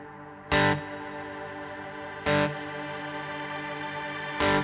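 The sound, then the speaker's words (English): A shimmer reverb pedal with the shimmer blend turned up: a dense, sustained wash of bright, octave-high overtones, with three fresh guitar attacks swelling out of it at steady intervals, no voices. “This is like dry wet mix, but this is how much shimmer, How gets, much shim- mi- gets mixed into the actual reverb hmm.”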